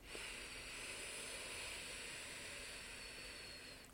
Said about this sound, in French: elle se pratique assis ou assise, les pieds à plat sur le sol, le dos droit sans être verrouillé, et on va inspirer par le nez en gonflant le ventre